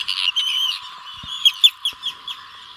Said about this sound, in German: Die Küstenseeschwalbe, so klingt sie übrigens.